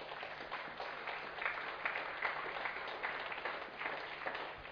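A steady wash of audience clapping in honour of William Borden, many hands applauding together without pause, moderately loud and even throughout, with no voices heard over it.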